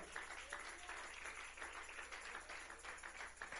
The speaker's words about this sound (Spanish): Démosle un fuerte aplauso a Él, aleluya.